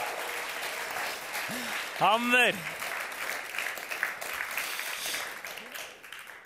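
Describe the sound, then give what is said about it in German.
Steady audience applause for a performer who has just played for the first time, dense clapping throughout with a single shouted cheer rising above it midway, then gradually thinning toward the end. “Gebt dem Simon einen fetten Applaus.”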